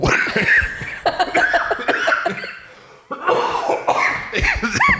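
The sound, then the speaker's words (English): A loud coughing fit: a rapid run of harsh, raspy coughs, a brief gasping pause, then another burst, tangled with breathless laughter. “I'm coughing so much.”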